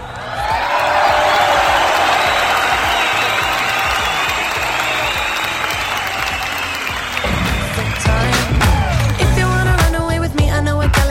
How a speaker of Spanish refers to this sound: Bueno, pues a todos ellos, a todos ellos completamente pues muchísimas, muchísimas gracias y público, eso se merece un fuerte, pero fuerte, fuerte aplauso.